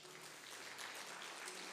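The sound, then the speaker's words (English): An audience claps together in sustained applause of praise to God, a dense crackle of many hands with no single beats standing out, filling the short stretch without any talking. “Does somebody feel like giving God a hand clap of praise in this place?”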